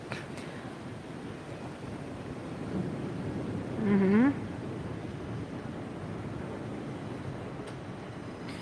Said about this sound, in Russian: Я уверена, что сейчас я выключу да, прямой эфир, и ветер успокоится. Миллион процентов уверена.